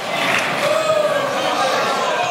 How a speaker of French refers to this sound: La ministre est en robe. Voilà qui suffit à déclencher un brouhaha fait d'exclamations sarcastiques.